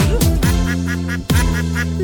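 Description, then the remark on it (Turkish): Several nasal duck quacks ring out, a couple of sharp calls followed by a quick series of smaller quacks, over steady, sustained musical tones, as the farm ducks in the Turkish children's song "Ali Baba'nın Bir Çiftliği Var". “Ali Baba'nın bir çiftliği var Çiftliğinde ördekleri var”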